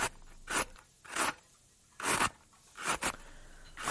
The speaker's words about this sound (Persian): خب ببین پوست دو تا پیازامو میکنم آماده میشم برای رنده کردن